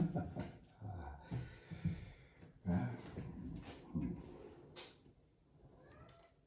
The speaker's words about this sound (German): Das verstehe ich nicht, dieses komische Miauen. Das verstehe ich nicht, kann ich es sehen. Immer wieder dieses komische Miauen. Warum macht's die Katze?